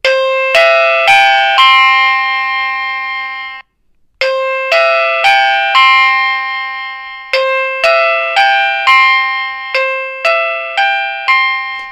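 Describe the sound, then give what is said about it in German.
A wireless doorbell chime, after its volume is changed with the third button, plays a bright, ringing melody of bell tones, pauses briefly, then repeats the tune with more quick notes. The tones are fairly loud and there is no talking. “So, dann können wir wieder zur dritten Taste gehen. Die war für die Lautstärke.”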